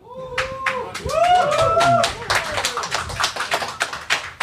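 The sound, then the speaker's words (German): A few people clap in quick, uneven bursts for several seconds, with sharp overlapping hand claps and some brief rising and falling vocal whoops mixed in near the start, applauding because someone has bought a Switch. “Uh, einmal ein Applaus.”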